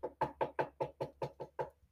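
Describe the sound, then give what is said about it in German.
A quick run of about eight knocks on a hard surface, evenly spaced, tapering slightly softer at the end, with no voices. “Einmal kurz klopfen für Matthew.”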